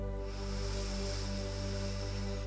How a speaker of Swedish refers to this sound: Vi ska börja med att ta några riktigt djupa andetag tillsammans. Och de här andetagen ska vi ta in genom näsan och så ska vi pusta ut luften genom munnen. Nästan som att vi blir en ballong i hela kroppen. Så vi andas djupt in genom näsan